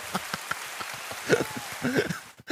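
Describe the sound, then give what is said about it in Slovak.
Scattered applause from a small group, a dense patter of irregular claps at a steady moderate loudness, with a few brief cheers or voices rising through it before it cuts off. “Aj tak sa to Veľký dá potlesk si prosím.”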